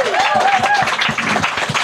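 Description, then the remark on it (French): A loud, steady burst of audience applause, many hands clapping in a dense crackle, with a faint whistle or cheer rising briefly above it. “Merci, mais ce qui va nous amener, une petite dernière main d'applaudissements,”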